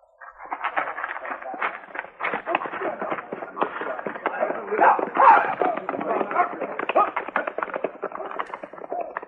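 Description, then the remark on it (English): A dense clatter of hoofbeats as several men ride off together on galloping horses, a steady rapid drumming at moderate volume with a thin, band-limited quality, continuing throughout without pause. “Now, the rest of you men, get back on your horses and don't stop in Dodge City.”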